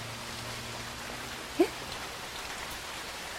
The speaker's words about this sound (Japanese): それにしても雨やみそうにないなそうですねこのまま雨が止まなければいいのにって思うことってない